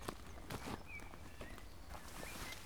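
Faint pony hooves clip-clop at an uneven pace on firm ground, a handful of soft knocks spread over a couple of seconds, with quiet outdoor background and no voices.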